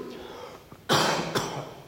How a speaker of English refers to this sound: There's just going to be coughing and quality of voice issues. I'm sorry, but we'll, we'll carry on.